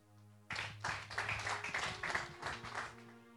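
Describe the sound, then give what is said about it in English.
A church audience clapping their hands, a dense, steady patter that starts abruptly after a brief quiet moment and continues, with a low electrical hum underneath and no talking. “You need to clap your hands.”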